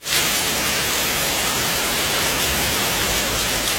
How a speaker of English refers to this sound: But if it's like I hate the rainstorms that pound. Like that's this is a pound.